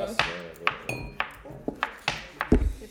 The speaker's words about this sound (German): Oh scheiße, jetzt bin ich gegen das Mikrofon gekommen, das ist natürlich ungünstig.